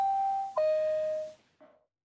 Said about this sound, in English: Oh, here we go. I found a specific Boeing 747 cabin alert bell.